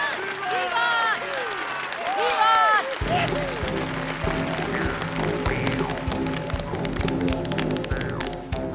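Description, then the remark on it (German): Voices shout and cheer for a few seconds after a toast, then dense, steady clapping breaks out and continues loudly as four men carry in a platter, with cheering and chatter mixed through it. “Alles klatschte und der Beifall wurde zum Sturm, als jetzt vier Männer die Platte herantrugen,”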